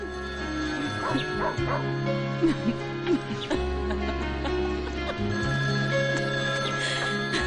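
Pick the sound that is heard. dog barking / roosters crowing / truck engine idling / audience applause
dog barking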